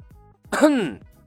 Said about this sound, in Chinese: 李牧再次咳嗽了一声